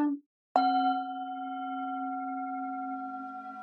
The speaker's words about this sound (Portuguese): Então vamos fechar os olhos, eu vou tocar o sino e a gente vai inspirar pelo nariz e soltar pela boca.